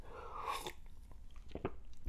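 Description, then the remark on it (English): Someone takes a quick sip of a drink, with a soft slurp followed by a few wet mouth clicks and a gulp, and no talking. “Let me get a little drink.”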